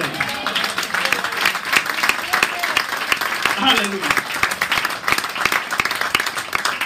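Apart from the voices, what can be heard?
audience applause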